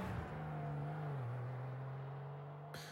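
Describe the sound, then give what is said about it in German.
A tuned car's engine roars loudly through its tuner exhaust as the car speeds off, holding a steady, throaty drone whose pitch dips slightly midway, with no voices. “Der Motor brüllte in Lautstärke 1000, gelber Rauch stieg aus dem Tuner-Auspuff”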